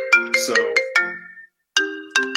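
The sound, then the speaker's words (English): A phone ringtone for an incoming call plays a bright, chiming melody of quick repeated notes, pauses for a moment, then starts the tune again, loud with no one talking. “sorry, I had my sister calling in.”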